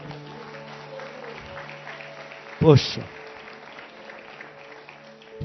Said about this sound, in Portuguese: Aplaude ele, aplaude.